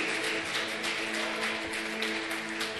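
A crowd at a worship service claps loudly for the name of the Lord, steady in a dense, crackling wash of applause that carries on for the whole stretch, with sustained keyboard chords held underneath.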